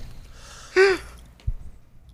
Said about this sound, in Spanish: Espérate, espérate, no cogí aire. Voy a coger aire.